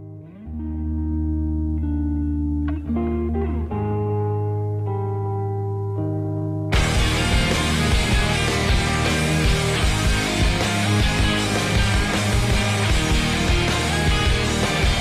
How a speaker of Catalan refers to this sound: I dins d'aquest àlbum hi havia aquesta cançó, …, ….